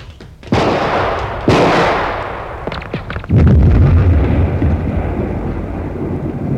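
Two sharp, booming laser-gun blasts a second apart, fired at a tunnel entrance, a scatter of cracks, then a loud, sustained low rumble of rocks crashing down in an avalanche that seals the entrance and keeps roaring to the end. No voices.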